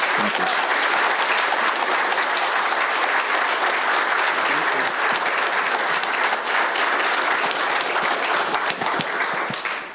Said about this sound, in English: I'll pass those out, but will everyone give them a round of applause for their service?